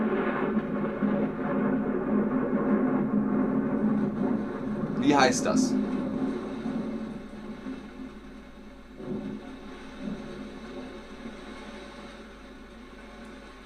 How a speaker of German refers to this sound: Wenn sich die Elektrizität im Himmel entlädt, das Geräusch, das man dann hört, ist der Donner. Sehr gut. Der Donner.